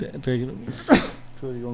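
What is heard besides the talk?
sneeze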